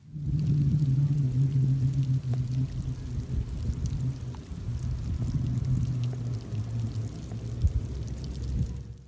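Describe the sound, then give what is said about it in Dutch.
Faint, steady rustling of tiny bubbles at a row of posts overgrown with mussels and oysters, like a trickle of water but not one, with a low continuous murmur underneath and scattered soft pops throughout. No voices are heard. “ja, dus bubbeltjes ritselen. Ja, je, eh, het klinkt een beetje als een waterstroompje, maar dat is het dus niet.”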